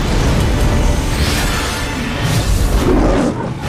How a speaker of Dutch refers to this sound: Hoor je die leeuw? Dat is de MGM Lion.